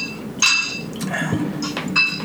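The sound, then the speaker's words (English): Glasses clink together in a Father's Day toast, three or four bright taps with short ringing tones, the first and last the loudest, over a faint murmur. “Oh, I gotta make a cheers because I need this.”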